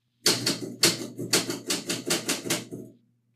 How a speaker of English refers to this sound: I'm just impressed at how well you can type in a moving car.